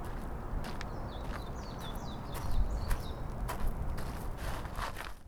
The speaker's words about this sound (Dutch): Dus wat je nu hoort is de rust, de stilte ehm, langs de rivier eh, bij mijn huis.